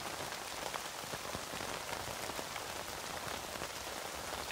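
Steady rain patters onto a tent, a dense hiss of countless drops with scattered sharper taps, constant throughout with no voices.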